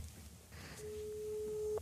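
A telephone ringing tone sounds while a call is placed: a single steady, mid-pitched tone comes in partway through and holds to the end over a low background rumble.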